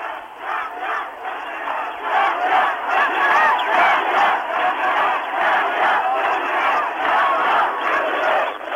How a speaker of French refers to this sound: Ce sont des immeubles importants avec de très grands balcons et au balcon, des femmes et des enfants sont nombreux à crier également.